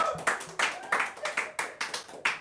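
A short burst of hand clapping from a small group welcoming an athlete of Indonesia's national sports week (PON), a taekwondo competitor, sharp overlapping claps in a quick uneven rhythm, fairly loud, with no one talking over it.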